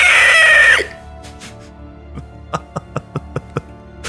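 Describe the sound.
A loud, strained shriek made by a human voice drawing breath inward, mimicking a creature's cry, cuts off after a moment; a quick series of light knocks follows.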